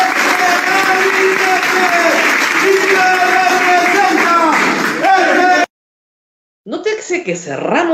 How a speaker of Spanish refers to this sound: el Congreso es respondido con una salva de aplausos de los correligionarios.